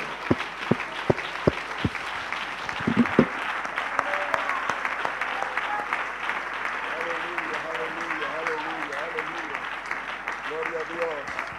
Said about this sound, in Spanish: Denle un aplauso al Señor Jesús. Aleluya.